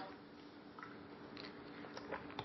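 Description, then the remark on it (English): Quiet sips and gulps of water by a speaker pausing mid-speech, a few soft wet swallowing sounds spread over a couple of seconds with no talking. “Let me get another drink of water.”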